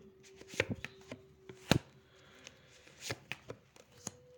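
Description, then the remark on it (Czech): Cards are flicked and slapped down onto a table during a card reading about work in 2022, an irregular run of crisp snaps, one noticeably louder, with a faint steady hum underneath and no talking. “Uh, co se týče práce 2022, já hodím ještě další karty práce 2022.”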